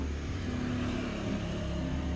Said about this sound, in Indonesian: bentar ada suara motor